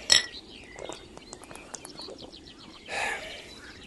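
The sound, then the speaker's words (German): Beer glasses clink together once in a toast, a bright ringing chime, then faint scattered ticks and a short hissing clatter near the end, with no voices. “Prost jetzt, auf die Ruhe. Ja. Und auf das Bier.”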